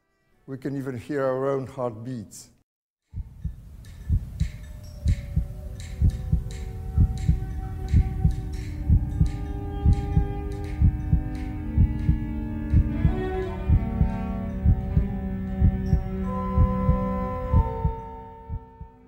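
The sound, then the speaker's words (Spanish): A brief voice at the start, then a pause, then a steady, loud heartbeat thumping in even rhythm under sustained, shimmering ambient music and chiming tones. “silencio, por favor, que nadie se mueva, para que podamos escuchar el silencio de la caverna y con un poco de suerte podremos escuchar también el latido de nuestros propios corazones.”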